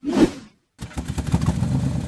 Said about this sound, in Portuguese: Can you hear this strange sound? Uh-oh, that doesn't sound good. The car stopped. I guess we ran out of gas.